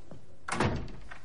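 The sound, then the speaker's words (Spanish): A door of a room in a gun shop shuts with one solid thud and a short rattle of the latch, fairly loud against a quiet background, followed by a faint click as it settles. “Malcolm cierra.”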